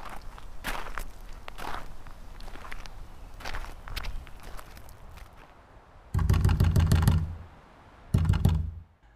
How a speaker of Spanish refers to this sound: La aldaba resuena en la puerta de madera de la casa de los Rojas.